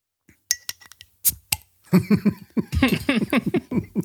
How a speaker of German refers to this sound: ich mache mir auch gerade ein Bier auf. Sehr gut. Ich habe ich hab mir hier nämlich so äh, zwei, drei Kameraden hingestellt. Äh, äh und dann würde ich sagen, stoßen wir erstmal kurz an. Genau, Prost.